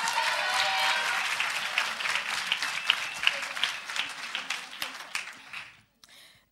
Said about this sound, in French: qu'on peut applaudir bien fort, s'il vous plaît.